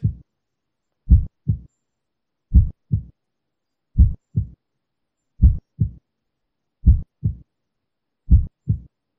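A steady heartbeat with normal first and second heart sounds: paired low thumps, lub-dub, repeating evenly about once every 1.4 seconds, clear with silence between beats.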